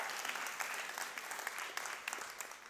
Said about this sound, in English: Now, yeah, that's, that's worth clapping.